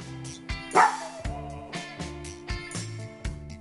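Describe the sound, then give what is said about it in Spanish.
A dog gives a sharp bark near the start, standing out against a steady, rhythmic musical backing that continues with regular beats throughout. “Si tu tibi ladra, algo pasa.”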